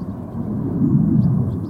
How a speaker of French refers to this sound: Il y a un avion de chasse qui passe.